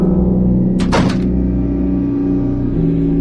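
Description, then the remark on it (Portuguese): A door is shut with a single brief, solid thump that fades quickly, set against a steady low humming drone that continues throughout. “Então o empregado pôs Tamar para fora e fechou a porta.”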